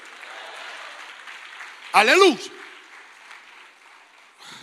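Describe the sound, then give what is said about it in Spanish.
An audience claps steadily in a dense, continuous patter, broken midway by one loud, ringing shout of praise from a single voice before the clapping carries on underneath. “Dale palmas al Rey de la Gloria, pues.”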